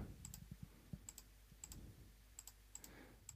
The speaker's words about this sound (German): Ich klicke jetzt mal hier alles an.